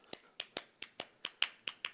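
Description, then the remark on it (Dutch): Sharp hand claps repeat in a brisk, steady rhythm in 6/8 time, about nine in under two seconds, falling in paired beats. They are crisp, with no voices. “Bijvoorbeeld twee klappen. één klapt.”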